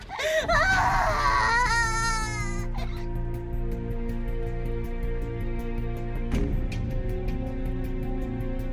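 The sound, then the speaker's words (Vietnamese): An infant wails loudly for about two and a half seconds, then the crying stops and a low, steady droning hum with faint regular ticks carries on to the end. “tiếng trẻ thơ vang vẳng bên tai hàng đêm”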